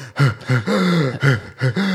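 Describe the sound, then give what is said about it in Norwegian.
A voice imitates rapid panting, a rhythmic run of loud, voiced breaths in quick pairs, each short intake followed by a longer, drawn-out breath, with no other talk, mimicking double breathing at the end of a Cooper running test. “Og da husker jeg alt det på slutten så begynte jeg også å puste sånn dobbelt”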